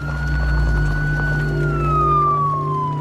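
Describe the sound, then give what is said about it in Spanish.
An ambulance siren wails loudly and steadily, then its pitch slowly drops as it drives away across the countryside toward the road, with a low engine rumble underneath and no voices. “El móvil se va por el campo hacia la ruta.”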